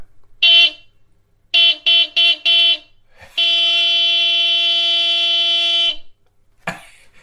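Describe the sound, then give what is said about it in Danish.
A car horn honks loudly: one short blast, then four quick rhythmic beeps, then a long sustained honk lasting several seconds before cutting off. “Det er bilhorn.”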